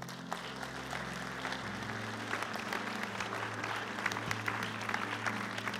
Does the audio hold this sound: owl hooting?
no